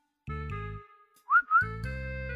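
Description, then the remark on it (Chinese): A man whistles with pursed lips, two quick, rising notes, a short bright upward swoop followed by a second glide, loud and clear between stretches of a steady, low musical drone. No one speaks. “撅起嘴巴吹了吹口哨”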